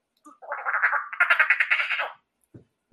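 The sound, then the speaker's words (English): A person imitates a duck's quack with a raspy, nasal, rapidly pulsing call lasting about two seconds, fairly loud, followed by a brief soft noise. “Is that a duck?”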